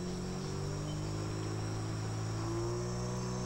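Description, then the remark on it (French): A dense, steady chorus of insects buzzes continuously in a forest, heard from a pirogue, with the low, humming drone of its outboard motor underneath that shifts pitch slightly near the end. No one speaks. “On écoute seulement ce ronronnement du moteur et puis derrière, quand ça ralentit, quand on s'arrête, le son de la forêt se rapproche”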